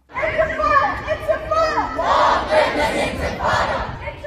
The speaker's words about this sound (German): Lang lebe die Intifada. Sprechchöre wie dieser waren tagelang auf dem Campus der University of Pennsylvania zu hören und nicht nur dort.